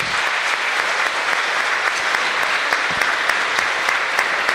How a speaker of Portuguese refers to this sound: Vamos aplaudir a palavra de Deus pelos amados.